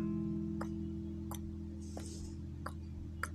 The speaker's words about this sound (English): The clock is ticking.